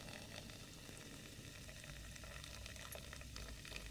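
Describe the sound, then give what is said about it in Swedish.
A drink poured from a can into a large glass, a steady rushing pour with fizzy crackling throughout, moderately loud, with no talking. “Vad händer nu om jag bara häller?”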